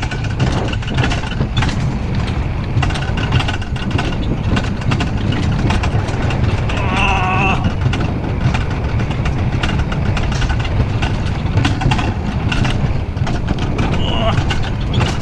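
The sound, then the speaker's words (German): A loud, continuous mechanical rumble of a roller coaster ride going through curves, dense low-end roar with rattling and a brief high squeal of wheels midway, with riders' voices and exclamations in German mixed in. “Eskurven, wir fahren Eskurven.”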